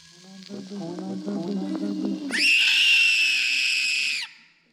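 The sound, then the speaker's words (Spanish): Muffled, strained vocal sounds build for a couple of seconds before erupting into a loud, shrill girl's scream that holds for about two seconds and then cuts off sharply. “La niña se ahogó en un grito cuando, en una de las portadas, vio al mismo niño una vez más bajo un titular.”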